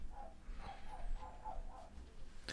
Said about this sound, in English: Yeah, I was gonna say, and and she's barking at someone, so he thinks he needs to bark.